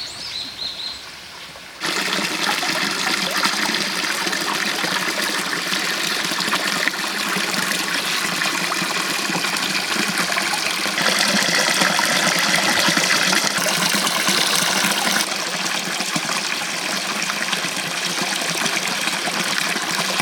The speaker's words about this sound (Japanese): 今朝は千葉県長南町湧き水のいい音それではお聴きください